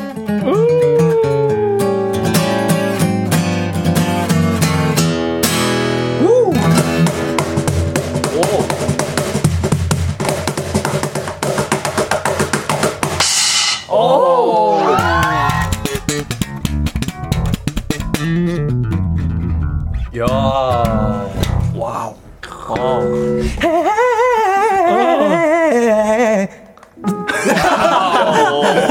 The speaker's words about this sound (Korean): 악기 솔로 맛집 원위 내 솔로가 가장 멋있다 싶으신 분 솔로 연주 한번 해 보여주세요 하셨습니다.